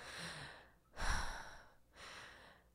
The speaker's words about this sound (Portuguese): Ai, ah, só respirando fundo, viu? Então eu te convido a respirar fundo comigo.